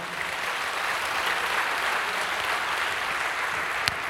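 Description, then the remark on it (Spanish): An audience applauds in praise of Christ, a dense, even wash of many hands clapping that holds at a constant level throughout, with one sharper clap standing out near the end. “Dale un aplauso a Cristo, a su nombre, gloria.”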